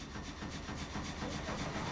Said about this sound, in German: An einer schmalen Flurbereinigungsstraße macht unüberhörbar ein Anwesen mit einem kleinen Sägewerk auf sich aufmerksam.